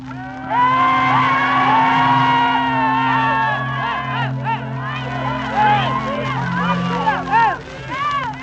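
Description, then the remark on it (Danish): A crowd shouts and jeers continuously as an informer is led by police to a police station months after the liberation, a resistance fighter holding a pistol at his back; many overlapping voices rise and fall in loud, rough cries, with some high yells breaking through the steady roar. “Nu skal de høre, hvordan det lyder når en stikker bliver ført til en af politistationerne.”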